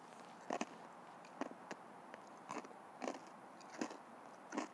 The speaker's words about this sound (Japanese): で柿の種にバリバリバリバリ食べてるから何の説得力もない と思うんですけどはい。